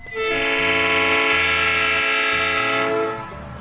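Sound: train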